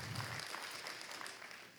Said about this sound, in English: Um, any, anybody, first time, this is your first time at Heartland, or maybe like you haven't been in a long time, and encourage people. Come on, look at that. Let's clap for them. Thank you for coming.